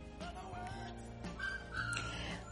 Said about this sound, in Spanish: Vale, tenía una alarma en el móvil y ha sonado. No sé si la escucháis, la habéis escuchado o no.